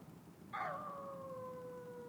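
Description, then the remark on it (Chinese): A dog lets out a single long, high howl that starts abruptly, then holds a steady, slightly falling tone to the end. It is fairly loud over a faint background hiss, with no talking. “它其实就是有见鬼了，吹高雷就是这这声音不是吧？”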